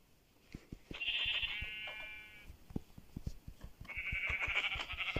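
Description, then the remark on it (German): Two drawn-out, wavering bleats from a black sheep in a video game, one early and one near the end, over a steady patter of soft clicking footsteps or tapping. “Hier ist noch ein Schaf, ein schwarzes.”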